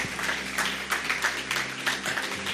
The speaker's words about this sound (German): Komm, lass uns denen, die ihre Hand gehoben haben, einen fetten Applaus geben. Großartige Entscheidung.